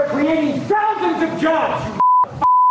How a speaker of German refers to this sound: An den Stellen mit den Piepstönen könnt ihr in Gedanken eine Beleidigung eurer Wahl einsetzen.